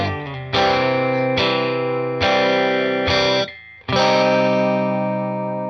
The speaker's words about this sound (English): This is one of my favorite songs of all of them that you picked. It really has like it, it, like a lot of them are kind of silly and stuff, but this one actually has a fair amount of depth.